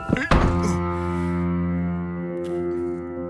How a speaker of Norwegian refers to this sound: Og så må jeg lukke døra. Lukke døra.